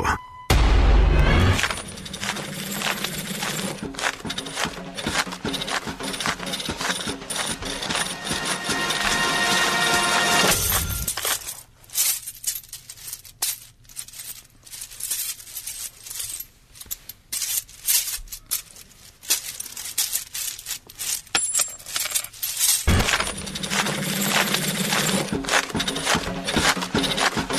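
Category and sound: household object, coins dropping and clinking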